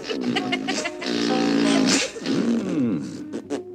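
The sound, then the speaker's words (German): A drawn-out, buzzy fart noise made by a voice, wobbling up and down in pitch over several seconds with a few short breaks, loud. “Du musst immer weiter fressen, auch wenn du furzt.”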